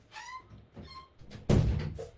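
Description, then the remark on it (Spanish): A door swings shut with a couple of brief squeaky creaks, then closes with a solid, fairly loud thud, followed by a short rumbling decay. “Voy a cerrar un momento la puerta porque se escucha jaleo de la calle.”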